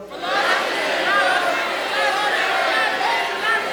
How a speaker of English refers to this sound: And I want everybody to, to scream your heresy as loud as you can several times right now. Go.